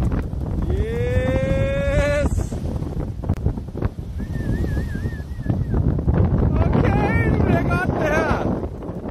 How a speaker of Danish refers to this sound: Er det en surfer? Det er en surfer. Det er lige nøjagtigt, hvad det er. Det er ballehage øh, fra i torsdags, hvor der blev surfet i Blæsved af mange, mange, mange surfer, også fra Aarhus. Øh, og det er jo stormvejr. Øh, det er jo kun blæst.